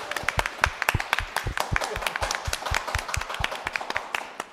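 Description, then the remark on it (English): A small audience applauds steadily for several seconds, a dense patter of overlapping sharp hand claps at an even, moderate loudness with no voices over it. “This is where I expect some round of applause, please, from the audience.”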